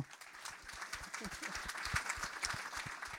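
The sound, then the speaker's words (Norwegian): Sustained applause from an audience at an evening event, a dense crackle of many hands clapping at once, steady for several seconds with no one speaking over it. “Applaus for AK.”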